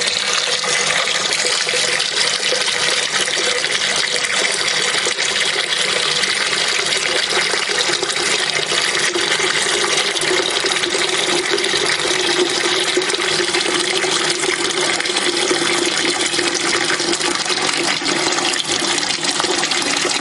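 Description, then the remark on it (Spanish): Water runs steadily from a tap into a plugged kitchen sink while white flowers are cut from a bouquet with scissors and dropped into it, a continuous splashing hiss that holds at an even level for the whole stretch, with no talking. “Una vez termina con un ramo, coge otro y repite el proceso de cortar las flores blancas sobre la pila con agua.”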